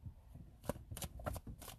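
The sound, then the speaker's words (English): Playing cards being shuffled in quick, crisp bursts of riffling and slapping, fairly quiet, with no voices over it, by someone practicing shuffling inside a car. “Every time I like mm. have my cards in my hand, I've been practicing shuffling.”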